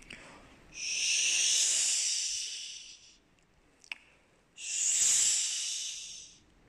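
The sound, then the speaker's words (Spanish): A voice uses the mouth to imitate wind moving a tree, with two long, breathy hissing whooshes, each swelling and fading over a couple of seconds, separated by a short pause with a faint click. “Cuando el árbol está siendo movido por el viento, vamos a utilizar nuestra boca para hacer un sonido más o menos así.”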